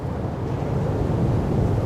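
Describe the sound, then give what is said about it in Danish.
Steady roar of strong wind buffeting the microphone over crashing sea surf in front of a dike at the mouth of the Hvideå river, a dense, loud, continuous rush with no voices. “Foran diget slår havet og vinden rasende ind i Hvideåens munding.”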